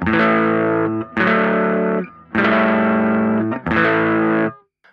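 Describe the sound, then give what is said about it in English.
An electric guitar plays four sustained, slightly gritty chords through a booster pedal set at +1.4 in front of an amp, firing up the amp's input stage. Each chord rings loud and full with brief gaps between, the last one fading out at the end. “Uh, to have a booster in front of uh, an amp or, or something like that, um, the booster is at plus 1.4.”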